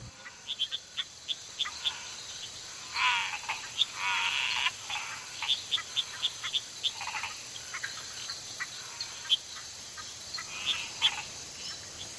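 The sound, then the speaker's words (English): A dense nighttime chorus of croaking frogs, with many rapid overlapping calls and brief louder bursts, set against a steady drone of insects; no voices are heard. “But this cacophony of sound at night is absolutely awe-inspiring.”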